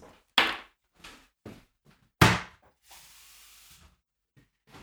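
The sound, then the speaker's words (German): Several sharp knocks and clunks as a bottle and glass are handled to refill a glass with a drink mixed with water, followed by a steady hissing pour lasting about a second, then quiet. “Ja, ich nutze die Zeit kurz, um äh, mein Glas nachzufüllen.”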